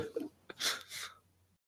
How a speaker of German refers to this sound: ich höre ihn atmen, das ist schon mal ein gutes Zeichen.